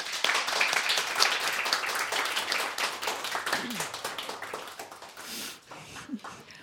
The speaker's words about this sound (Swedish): Vi applåderar.